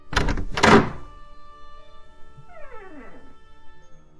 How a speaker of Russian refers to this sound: Гермиона постучала в дверь.